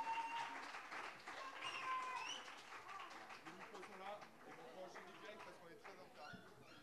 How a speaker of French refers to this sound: On peut les applaudir. S'il vous plaît, jusqu'à ce qu'ils arrivent sur scène.